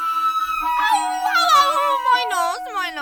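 A boy who has fallen off his bike onto his nose gives a loud, wavering wail that rises and falls in pitch, continuing unbroken for about three seconds with no other voices.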